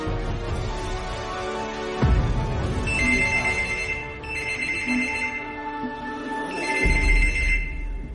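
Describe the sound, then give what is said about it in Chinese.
A telephone rings in three long bursts of rapid, high-pitched trilling with short pauses between them, sounding over a steady low droning background. No one speaks. “一个邻居壮着胆子、胆战心惊地走进了曹家之后，一下就被眼前的场景惊呆了，随后颤抖着拨打了报警电话。”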